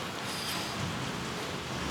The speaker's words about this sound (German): Ich glaube, wir müssen an der Stelle mal kurze Pause machen und unterbrechen, sehr weil äh, wir haben jetzt im Hintergrund sehr viel Regen, äh, aber wir sind gleich wieder da.